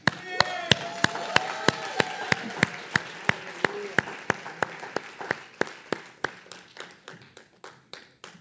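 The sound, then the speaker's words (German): A church audience claps for Jesus in steady unison, sharp rhythmic claps over a dense wash of scattered applause, with raised voices calling out at the start. The beat quickens slightly toward the end. “aber kann man noch für Jesus einfach einen Applaus geben?”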